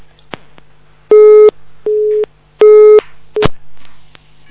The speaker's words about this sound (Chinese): 哎，电话太忙了。